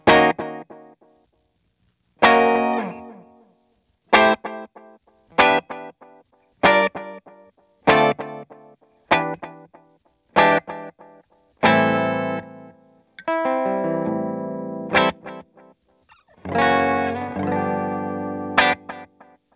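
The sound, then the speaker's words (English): Electric guitar chords played through a delay pedal with the reverb turned off, strummed in a steady series of sharp attacks, each one trailing off in repeating delay echoes; later chords ring out longer and fuller. No talking. “So let me turn the reverb off because you know I don't want I, I want to hear the delay just totally by itself.”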